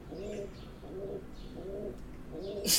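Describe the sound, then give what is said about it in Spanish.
A pigeon, apparently in heat, coos repeatedly in a steady, rhythmic series of low, throaty calls, ending with a brief rustling burst. “Hay una mm, paloma en celo, parece.”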